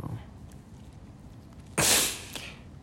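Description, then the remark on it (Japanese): A harsh cough bursts out after a quiet stretch, followed moments later by a shorter, weaker cough. “咳が止まんないので終わります。”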